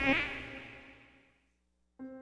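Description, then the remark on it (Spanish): A thin, whining mosquito buzz in a Radio UNAM announcement, with a sharp onset, fades out over about a second and a half, then after a brief silence a second buzz starts abruptly. No voices. “Ningún mosquito fue lastimado durante la realización de este anuncio.”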